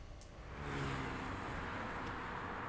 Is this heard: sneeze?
no